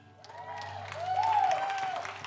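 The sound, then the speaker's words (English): An audience claps, in response to an announcement about going live in a few weeks, in a dense, steady burst that swells slightly toward the middle, with a few sustained whooping cheers rising and falling over the applause. “Uh, you can clap on that.”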